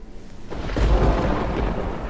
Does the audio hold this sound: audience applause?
no